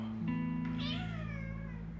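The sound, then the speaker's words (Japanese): A pet cat named Mugi meows in a long, drawn-out call with a rising then falling pitch, lasting most of the two seconds, with no talking over it. “えっと、愛病の猫ちゃん、麦ちゃんが、”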